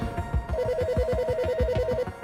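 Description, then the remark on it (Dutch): One of the phones in a room rings with a rapid warbling electronic tone, steady and fairly loud, over a dense background of low rhythmic pulses and clutter for about two seconds. “Een van de telefoons in de kamer gaat af.”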